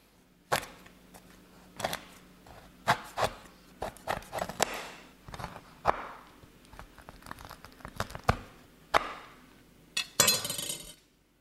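A knife chops repeatedly through chocolate on a board, cutting it into small, thumb-size pieces: sharp cracking thuds at an uneven pace with crisp, crinkly snaps and brief scraping between cuts, no talking.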